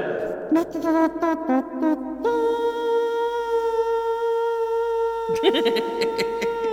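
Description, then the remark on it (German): A voice makes a nasal trumpet imitation: a run of short, choppy honks, then a long, steady buzzing note held for several seconds, ending in a few wavering blasts. “Hast du die letzten Tage dazu genutzt in eine Trompetenschule, Nasentrompete?”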